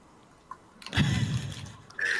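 water splashing

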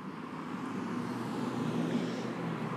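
cars passing outside

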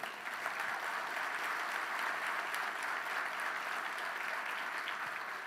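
audience applauding

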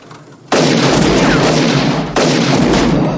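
several gunshots fired

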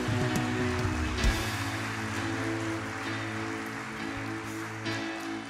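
audience applause

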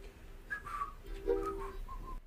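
whistling a tune

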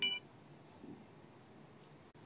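alarm beeping

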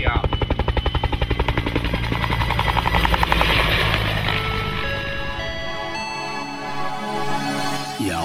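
helicopter flying overhead

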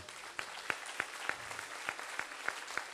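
audience applauding

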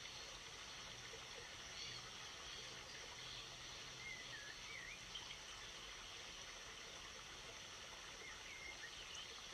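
flowing river stream

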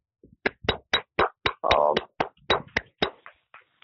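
applause

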